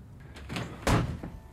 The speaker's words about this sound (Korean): 대안이가 아들에게 행복하냐고 묻자 아들은 그 말에 참았던 화를 터뜨리고 그대로 문을 쾅 닫고 집 안으로 들어가 버리죠.